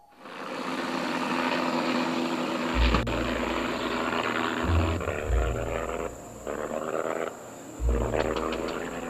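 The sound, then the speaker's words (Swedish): A propeller plane engine coughs and sputters while flying over the sea four kilometres from land, its low rumble surging in uneven bursts with brief dips between them, loud over a steady droning hum. “Motorn hostade och sedan tystnade den helt.”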